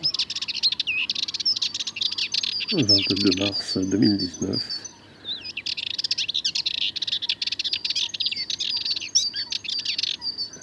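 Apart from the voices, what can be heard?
sardinian warbler song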